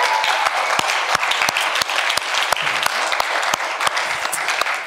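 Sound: audience applauding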